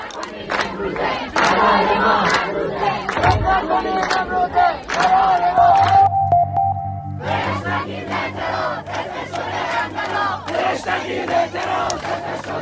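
A loud street protest crowd in Iran chants and shouts in rhythmic bursts during last autumn's protests, with a high sustained note rising midway and a low steady drone running beneath the second half.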